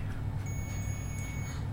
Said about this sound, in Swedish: Då hör vi att både telefonen sa till, men också själva den här enheten med temperaturen på. Piper också och blinkar för att tala om att nu är maten färdig.